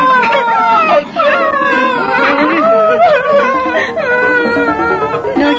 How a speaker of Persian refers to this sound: سایر بچه ها او را مسخره کردن و پینوکیو شروع به گریه کرد گوش کن